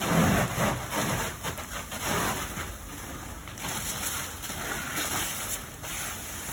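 Marshall firefighters battling an early morning structure fire in the 2000 block of Lower Port Caddo Road: a steady, dense rush like spraying water and engine rumble, with thin high-pitched whining tones running throughout. Nobody speaks.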